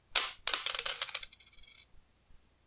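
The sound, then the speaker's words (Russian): A bright burst of coins jingling and clinking for about a second, then a few thin metallic rings fading out. No one speaks. “Всем пока под звон монет.”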